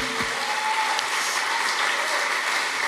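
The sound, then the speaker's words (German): Steady applause from a church audience in Hamburg giving a big round of applause, a dense wash of many hands clapping at an even loudness throughout, with no voices rising above it. “Komm, lass dir mal einen riesen Applaus geben.”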